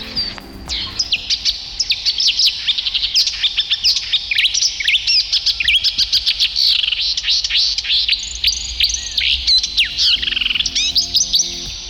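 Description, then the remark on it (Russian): A reed warbler sings a long, continuous run of chattering, scratchy phrases with quick repeated notes, clear throughout with no voices. “Давай запоминать. Камышовка.”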